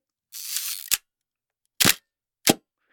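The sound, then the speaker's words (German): A Hasselblad 501 CM analog medium-format camera shutter fires with a longer whirring release followed by a sharp snap, then two more crisp mechanical clicks spaced apart, clear with silence between. “Ähm, die Kamera, die man am Schluss hinten raushört, das ist die ähm, Hasselblatt 501 CM, wenn es jemanden ganz genau interessiert.”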